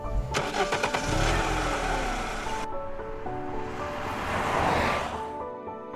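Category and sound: vehicle, car engine starting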